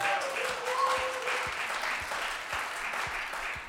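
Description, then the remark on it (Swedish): An audience at a Sunday church service applauds together in a steady, dense wash of clapping that holds at an even level throughout, with a couple of faint whistle-like tones near the start. “Det är värt en applåd både till Gud och till Folkhälsomyndigheten och regeringen som har hjälpt oss att komma till detta.”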